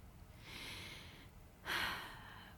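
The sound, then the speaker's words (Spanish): Two soft, airy breaths through the nose, a slow inhale followed by a slightly stronger exhale, quiet with no talking, taken as a mindfulness breathing practice while lying on a mattress. “Me concentro en la sensación de mi respiración entrando y saliendo por mi nariz.”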